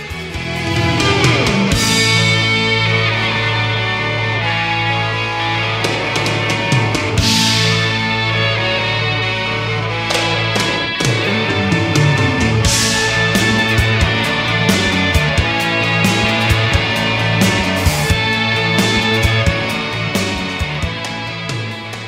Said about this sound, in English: If you if you listen to it, listen to the song after that first musical interlude, and it sort of slows down and breaks down, you can hear that EBow in the background.